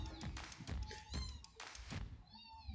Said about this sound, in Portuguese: Nossa, tem até um gato aqui, velho, miando. Inferno.